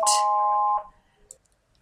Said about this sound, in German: ups, das Telefon, Moment.